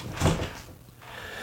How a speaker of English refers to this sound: So if you guys heard that noise just now, I apologize. That was the dog desperately trying to get into the room. Uh, he hears us in here talking,